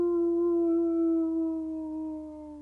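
A wolf lets out one long, steady howl that drifts slightly downward in pitch, fairly loud, with no other sounds around it.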